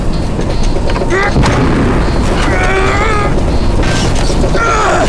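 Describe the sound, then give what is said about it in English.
A spacecraft's reserve thrusters fire during a landing, roaring continuously, a loud, dense rumbling blast that never lets up, with warbling electronic tones and whines rising and falling over the thunderous thrust. “Reserve thrusters!”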